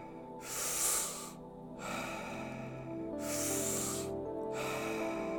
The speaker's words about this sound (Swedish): Rond nummer ett. Andas in, andas ut. Andas in, andas ut.